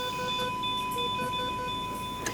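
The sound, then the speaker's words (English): A steady electronic hospital alarm tone with rapid, regularly repeating beeps, sounding urgent and persistent over a low background hum, moderately loud. “Alarm sounds regularly and with urgency.”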